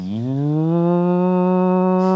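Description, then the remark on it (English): A voice imitates a Ferrari engine revving as the gas pedal is pressed lightly. It makes a loud, buzzy low drone that climbs slightly in pitch at the start, then holds steady for about two seconds. “imagine buying a ferrari turning it on and then getting in the car and just putting the foot on the gas lightly and going”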